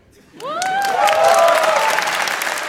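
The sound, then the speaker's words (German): A sudden burst of crowd applause, dense and steady clapping that holds loud to the end, with a rising whoop or whistle riding over it near the start. “Ab und so einen Applaus. Einfach mal reingestreut.”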